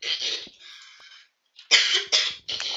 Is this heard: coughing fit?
yes